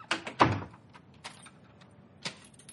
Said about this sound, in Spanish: Berlín entra y cierra la puerta con llave.